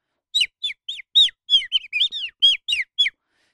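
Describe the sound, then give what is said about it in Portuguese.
Small birds chirping outdoors, a quick run of about a dozen bright, high twittering notes in close succession, clear, with no talking. “Olha, olha passarinhos.”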